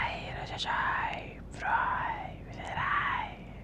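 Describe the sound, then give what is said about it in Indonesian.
A person imitates the eerie whispering of many creatures heard while going to sleep: three breathy, hissing swells rise and fall in slow waves, fairly loud, with no clear words. “yang ngomong tuh nggak cuma satu makhluk tapi rame banget dan makin gede gitu seakan-akan mereka tuh bisikin saya”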